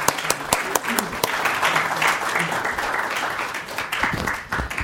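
Steady audience applause fills the whole stretch, a dense crackle of many hands clapping at a fairly loud, even level with sharp individual claps popping out now and then.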